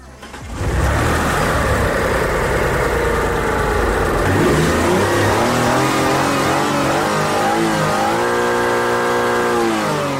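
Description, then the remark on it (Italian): A car engine with a holed, rusted exhaust pipe that needs replacing revs loudly, its harsh, raspy roar climbing and dropping in pitch for about ten seconds, with no one speaking. “Allora, questo è un tubo di scarico da, da cambiare assolutamente perché appunto è bucato.”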